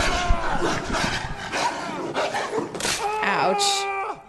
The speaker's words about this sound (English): Come on, Robb. You gotta have your dog do your dirty work. Mm. So Robb's wolf definitely just bit off a few fingers.